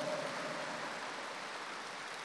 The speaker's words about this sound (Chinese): 鼓掌的人不是这么多，我就知道，因为你们还没听懂。